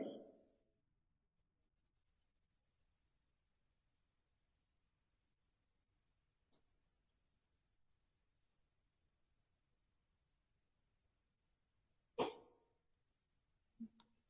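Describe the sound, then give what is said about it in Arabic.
A single sharp, explosive sneeze bursts out loudly near the end of a mostly quiet stretch, followed by a brief smaller sound, with a faint click earlier on. “رحمك الله”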